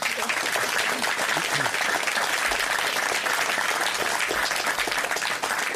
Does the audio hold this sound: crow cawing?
no